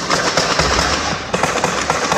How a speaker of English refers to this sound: This vehicle started moving southbound along Shelbourne Street. As it comes to a stop just outside the bank, the gunfire starts. A group of officers come running into the fire, exchanging shots.